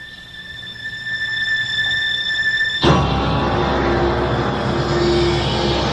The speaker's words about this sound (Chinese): 那天下午，古城的门铃突然响起，尖锐的声音划破了寂静的午后，听来十分刺耳。